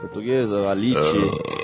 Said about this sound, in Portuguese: Arroto e essas coisas.